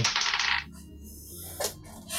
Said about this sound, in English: No, like that is another nat 20. That feels like a cheat. what? We can't see your dice. If you rolled two 20s, you did.